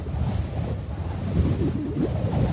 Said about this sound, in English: Roofs in Arizona take a beating. the sun cooks them. The wind pulls at them.